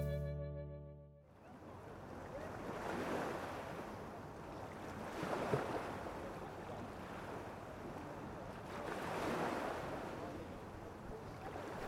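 After a brief tonal hum at the start, ocean waves roll in and break on the shore at the seaside, a steady wash of surf swelling every few seconds, moderately loud, with no voices.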